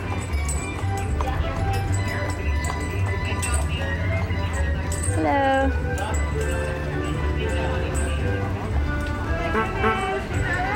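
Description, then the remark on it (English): Hooves of a horse-drawn carriage clip-clop steadily as it passes along Main Street through a busy, crowded outdoor scene, with background chatter and a voice briefly speaking over the bustle. “And a horse drawn carriage is passing right now, if you can hear the clumpity clump.”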